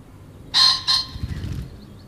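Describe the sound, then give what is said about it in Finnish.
A single loud, clear rooster crow played from a recording, with a brief break after its strained opening before the call trails off over a low background hum. “Kuunnellaan se vielä niin kuin nauhalta kunnon huuto.”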